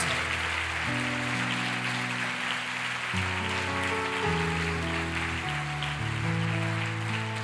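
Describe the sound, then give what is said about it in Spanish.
A church audience applauds the Lord in a steady, dense wash of clapping that holds at a constant level, while sustained keyboard chords shift underneath. No one speaks. “Fuerte ese aplauso al Rey de Reyes y Señor de Señores.”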